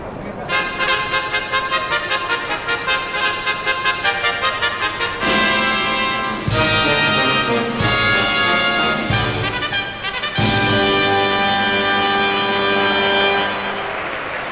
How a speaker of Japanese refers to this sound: さあスターター台の上に上がりましてこれからファンファールとなります